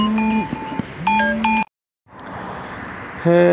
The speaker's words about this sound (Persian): ببخشید زنگ خورد وسط ضبط صدا